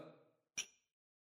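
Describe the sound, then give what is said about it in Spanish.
A voice trails off, then two glasses meet in a toast with a single bright clink that rings briefly before fading into silence. “Salud.”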